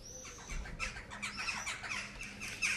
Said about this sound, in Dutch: Hey, vogels, even rustig. Ja, dat komt omdat jij net al die kruimels hier op de grond hebt gegooid.